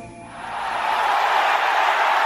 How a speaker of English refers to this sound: Listen to that crowd roar. Art, the Aspen Mortgage team has just hit the field and the crowd has gone crazy.